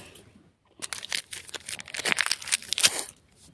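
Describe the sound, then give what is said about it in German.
A foil trading card pack of 16 cards is torn open, a burst of crinkly, crackling tearing lasting a few seconds with sharp rustles and snaps, following a brief quiet pause, with no talking. “Ja, dann machen wir weiter mit dem nächsten mit 16 Karten. Let's go. Ich reiße es auf.”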